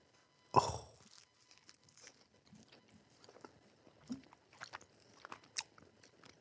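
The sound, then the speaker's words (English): A sharp crunchy bite into a slice of pizza, followed by several seconds of wet, irregular chewing with soft smacks and crunches, no talking. “I'm so used to I had to train my brain and tongue now to just be happy I can eat pizza.”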